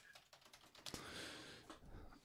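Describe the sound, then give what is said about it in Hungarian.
Rapid clattering keystrokes on a computer keyboard, typing an eBay search for latex pyjamas, a steady burst with uneven rhythm and a few louder key hits, no voices present. “Late- beírtam ebay hogy latex pizsamaz.”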